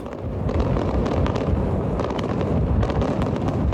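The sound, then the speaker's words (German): A dense barrage of fireworks crackling and booming continuously, loud rumbling bursts overlapping with sharp pops and crackles throughout, with no voices. “Deshalb ein kleines Feuerwerk.”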